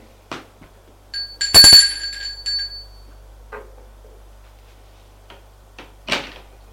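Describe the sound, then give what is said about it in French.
A doorbell at an apartment door rings once with a bright, metallic chime that lingers briefly, framed by a few soft clicks and knocks before and after. No one speaks. “arrivé à l'étage, il va sonner chez elle.”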